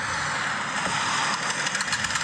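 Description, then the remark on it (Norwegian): A car engine idles with a steady, rough drone, and a light rhythmic clattering becomes noticeable in the second half. No one speaks. “Vi har bilen her.”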